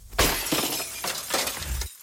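windshield glass shattering

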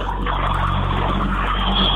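truck driving past

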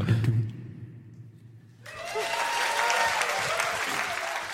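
audience cheering and applause

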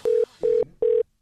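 telephone ringing

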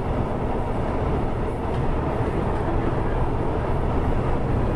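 train running on rails

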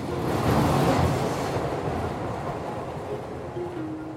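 subway train riding

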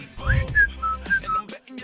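whistled melody

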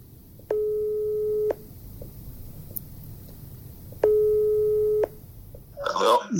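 telephone ringing tone

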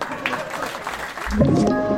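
audience applause

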